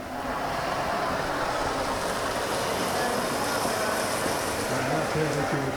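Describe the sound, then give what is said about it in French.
A steady, loud hiss of steam rushes continuously from the steam injectors (steam wands) of a bakery bread oven after loaves are loaded, broad and unbroken, with a low machinery rumble underneath and no pauses throughout. “Euh, et puis après, on a, euh, on a une dépose de buée, donc c'est pareil. Ça fait, ça fait du bruit, on entend la, buée qui normalement sort des cannes à buée là-bas.”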